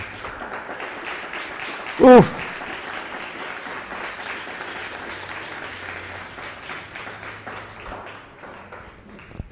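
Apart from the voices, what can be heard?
audience applauding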